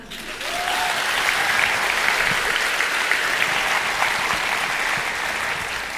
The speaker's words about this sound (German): Ein Applaus für sie, oder?